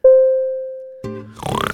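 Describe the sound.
A steady, fading tone gives way to a person's voice doing short, rough, nasal grunts in a pig voice, like a pig oinking, fairly loud, ending in a quick snorting burst.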